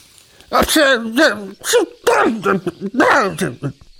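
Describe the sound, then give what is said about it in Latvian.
A person mimics a tomcat sneezing with a run of about five quick, voiced, sneezy bursts over a few seconds. The voice is fairly loud, with no other sounds behind it. “Te runcis sāka nelabi šķaudīt.”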